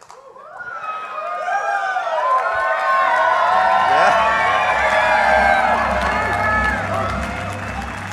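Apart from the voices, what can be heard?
crowd cheering loudly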